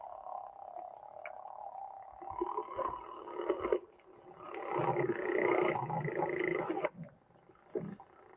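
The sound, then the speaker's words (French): Dolphin vocalizations: a steady wash of chirpy whistles, squeaks and buzzing calls layered together, swelling louder in the middle and briefly dropping out twice, with no voices present. “Donc, juste, je vous mets les vibrations des dauphins, les sons des dauphins.”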